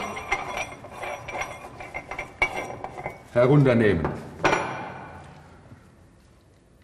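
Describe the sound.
Metallic clinks and taps of tools on a metal saw frame as the saw support is opened and its locking screw loosened, followed by a grinding scrape and a sharp clank as the tool is set aside, ringing out briefly; a voice speaks faintly at the start.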